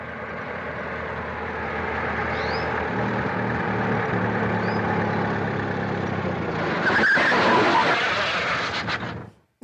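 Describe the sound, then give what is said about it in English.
A car engine rumbles steadily, then near the end brakes hiss and squeal sharply as the car comes to a halt for a hitchhiker, and the sound cuts off abruptly. “I'll stop a car, and I won't use my thumb.”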